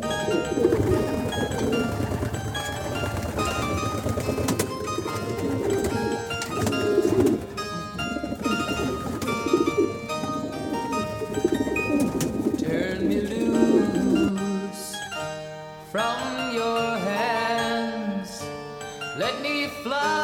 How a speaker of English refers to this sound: because feral pigeons make this sort of woo woo sound, and it's quite hypnotic, really. Um, the youngsters can sound a little bit noisy, but I think I think pigeon sounds are, are very calming.